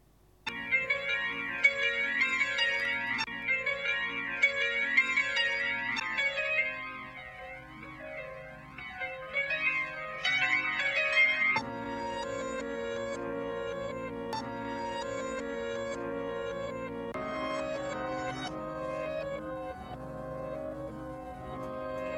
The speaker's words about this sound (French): et donc, c'est aussi sur cette transition très bien faite que je vous propose maintenant d'écouter la pause musicale.